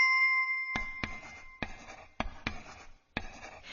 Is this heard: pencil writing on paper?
yes